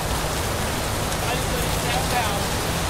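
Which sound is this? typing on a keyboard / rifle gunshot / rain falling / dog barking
rain falling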